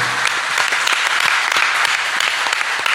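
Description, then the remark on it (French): Steady audience applause for the director of Anglo fills the whole stretch, a dense, even clatter of many hands clapping at a consistent loudness with no voices standing out. “on peut l'applaudir.”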